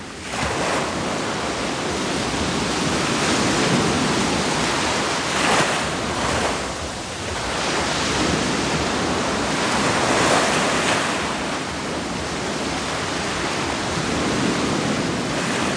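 Steady roar of ocean surf washing onto the shore, with broad swells rising and falling every few seconds, loud, with no voices.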